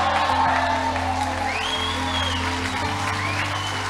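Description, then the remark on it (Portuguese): An audience applauding the Lord in a steady, dense wash of clapping that holds loud throughout, with a few rising whoops and shouts cutting through above it. “Se você vai aplaudir ao Senhor, faça até a mão esquentar.”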